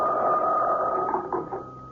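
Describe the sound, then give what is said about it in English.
A telephone rings late at night in one continuous, buzzy peal with a steady mid-high tone, fairly loud and unbroken for about two seconds, with no voices. “Late the second night, my phone rang.”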